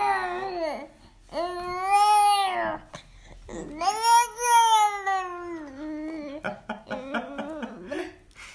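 A baby playing with beans babbles in long, sing-song vocal bursts with rising and falling pitch, some stretched into whiny cries, followed by short choppy syllables and faint rattling toward the end.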